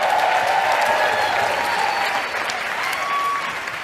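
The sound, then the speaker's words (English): A large audience at the SEIU convention claps and applauds steadily for a few seconds for public school teachers, a loud, dense wash of hands with scattered cheers, easing slightly toward the end. “And let's hear it for the public school teachers.”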